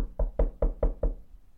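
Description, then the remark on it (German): Five quick, evenly spaced firm knocks on a door, each a dull thud with a short decay, followed by a moment of quiet with no voices. “Nee, das, ja, mach, es hat jetzt bei uns hier gerade geklopft.”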